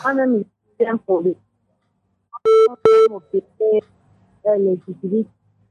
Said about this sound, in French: je ne t'écoute pas bien, …. Parle directement, n'utilise pas le, haut-parleur